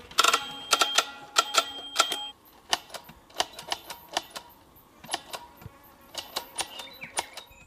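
Sharp mechanical clicks from a hand tally counter used to count moving sperm cells in tiny samples under a microscope, pressed in quick irregular bursts with short pauses, fairly loud, sounding much like an old typewriter. No one speaks.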